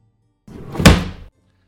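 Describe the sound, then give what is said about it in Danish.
A dresser drawer bangs open: a short wooden rumble that ends in one loud thud, heard on its own with no voices. “og lige pludselig så øh, åbner der sig en skuffe i en kommode. Ej, okay. med et ordentligt brag.”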